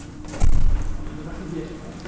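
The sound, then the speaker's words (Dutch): A few heavy footsteps thud up a short flight of stairs into a small building, with a brief louder burst of steps followed by quieter shuffling and a faint background voice. “paar trappen op.”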